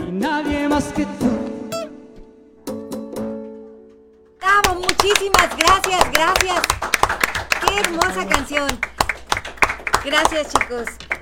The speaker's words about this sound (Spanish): No nos vamos a cansar de aplaudirles, la verdad.